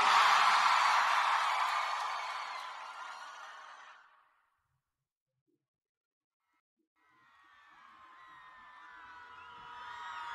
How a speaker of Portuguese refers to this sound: Quem gostou, joga a mão e dá um grito, Salvador.